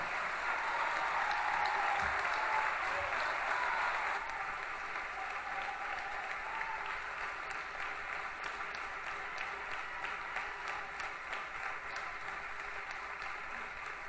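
Sustained audience applause from a concert crowd, a dense wash of many hands clapping, louder for the first four seconds and then continuing slightly softer and steady to the end, with no voices.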